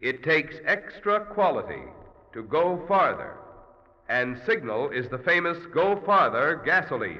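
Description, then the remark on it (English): A voice speaks through an echo chamber with heavy reverb, each phrase smearing into long, hollow trailing tails that linger and fade between bursts of speech, demonstrating the echo chamber effect on a Signal Go Farther gasoline advertising line. “On the other hand, through the echo chamber, it would sound like this”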